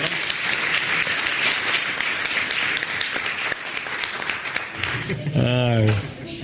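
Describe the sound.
A crowd applauds steadily for about five seconds, a dense, even patter of many hands clapping, before a single raised voice breaks in near the end.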